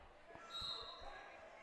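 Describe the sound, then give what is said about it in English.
A basketball bounces on a gym floor several times in quick, uneven thumps during a game in which Parkview plays a 2-3 zone against the Titans, heard amid echoing crowd noise, a high sneaker squeak and faint voices in the background. “Ball bounced around.”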